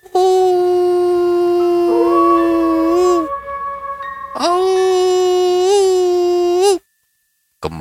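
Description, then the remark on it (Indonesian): A dog howls loudly in two long, sustained wails, the pitch holding steady with slight bends before each one trails off, followed by a brief silence. “kembali suara lolongan anjing terdengar di telinga Andre.”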